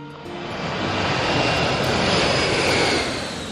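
A steady, loud roar of jet engines fills an airplane cabin on a flight to Thailand, a broad continuous hiss and rumble that swells slightly and holds for a few seconds before easing back.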